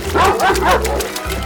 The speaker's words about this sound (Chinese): 长毛狗被气得更使劲地挥舞着前脚，疯狂地大叫了出来，并且用嘴探入溪水里乱咬一通。